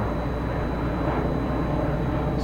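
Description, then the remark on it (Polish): An airplane drones overhead, a steady low rumble that holds at an even level throughout, filling the background with a continuous broad roar and no voices. “Samolot słyszy, tak?”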